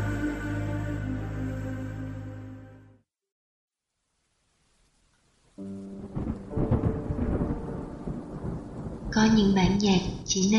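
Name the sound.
rain and thunder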